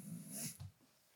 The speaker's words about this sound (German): Ja, das war mein Hund, der hat sich gerade hingelegt.